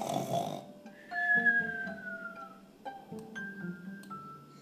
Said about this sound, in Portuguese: Essa é roncando de sono. Está roncando de sono, tio Gerúndio.